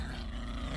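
A low, rumbling growl from a frightened pet dog named Happy, baring its teeth in a house at Christmastime, steady and holding for under a second with no talking around it.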